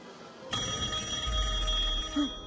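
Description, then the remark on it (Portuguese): A telephone bell starts ringing abruptly and keeps going in a steady, bright, sustained trill, loud, with no talking over it; the call is from a telemarketer. “Não atendam o telefone!”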